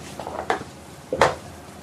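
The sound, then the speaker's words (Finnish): Soft restraint cuffs, gentler than real handcuffs, being handled and fastened, with faint rustling and two brief, sharper clinking bursts about a second apart; no one speaks. “Aika pehmeät nämä kahleetko? Niin. Joo, nämä eivät ole ihan, ihan sellaiset käsiraudat, että nämä ovat vähän lempeämmät.”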